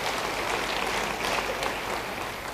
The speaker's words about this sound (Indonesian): Beri tepuk tangan bagi dia. Haleluya.